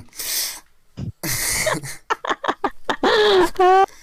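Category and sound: human body sound, a sneeze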